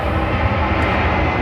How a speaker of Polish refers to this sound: przepraszam za te samoloty, no ale jak się mieszka blisko lotniska